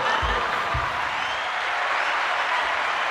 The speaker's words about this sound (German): Genau. Applaus. Endlich habe ich den Knopf hier. Ich habe, ich habe erst den falschen gedrückt. Ich habe erst mit dem Lachen.